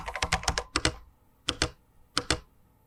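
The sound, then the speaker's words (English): Crisp computer keyboard typing during a quick online search for a new place to rent: a quick run of about eight clacking keystrokes, a short pause, then two brief pairs of taps. No voices are heard. “Okay. Typing now.”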